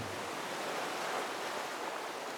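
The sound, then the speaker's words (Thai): Ocean surf washing steadily against the shore, a continuous broad hiss of breaking waves with no clear pauses, fairly loud, with no voices. “ได้ยินคนพูดถึงทะเล ได้ยินเสียงคลื่นซาะฝั่ง”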